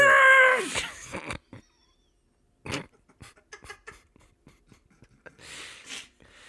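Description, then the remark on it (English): A person does a loud imitation of a dog's bark right at the start, as the punchline of an interrupting-dog knock-knock joke. It's followed by a short second burst and then scattered soft clicks and noises. “Knock knock. Who's there? Interrupting dog.”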